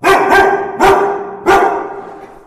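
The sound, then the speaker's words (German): A dog barks four times in quick, uneven succession, loud, each bark sharp with a short ringing tail, at a company workplace where dogs are part of the team. No one speaks. “Neben rund 50 Mitarbeitenden gehören unter anderem auch Hunde zum Team.”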